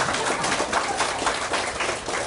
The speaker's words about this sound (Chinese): 那个掌声啊，哩哩啦啦。这个哈法讲得太好，实在不好。大家都太专心，啊，都是抬头族，不是低头族。因为你听得很专心呢，你都忘记要鼓掌。